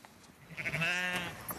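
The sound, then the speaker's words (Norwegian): A single old Norwegian spælsau sheep, an old Norwegian breed, bleats once, a wavering, nasal cry lasting under a second, clear against quiet outdoor background, on a smallholding at Osmarka in Gjemnes, Møre og Romsdal, Norway. “Den sauen jeg har, det, det er gammel norsk spel. Og det er jo en av de gamle sauerasene i Norge.”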